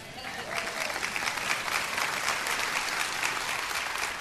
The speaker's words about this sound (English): Amen. You should be clapping at that.